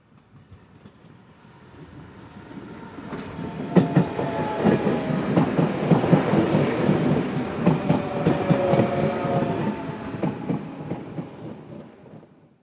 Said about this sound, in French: Est-ce le bruit d'un train ou d'un avion On entend le bruit d'un train.